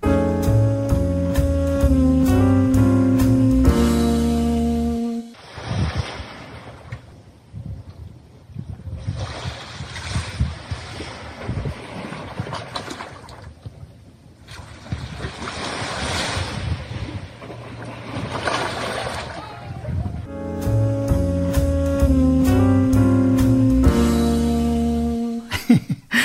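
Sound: ocean waves breaking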